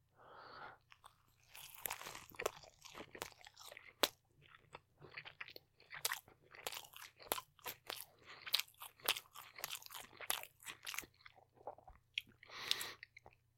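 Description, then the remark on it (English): Someone bites into a burger and chews steadily, a long run of soft, crunchy, wet mouth sounds in an irregular rhythm over a faint low hum, with no talking. “Pretty good looking burger.”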